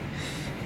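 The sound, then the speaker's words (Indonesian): A steady, rumbling roar of a train passing on rails near a boarding house, continuous and fairly loud through the brief moment, with no one speaking. “suara kereta ya ya kosan gue hampir dekat dengan rel kereta jadi sorry kalau misalnya ada suara kereta lewat mohon dimaklumi”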